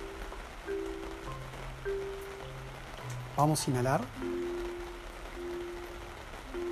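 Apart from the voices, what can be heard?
rain falling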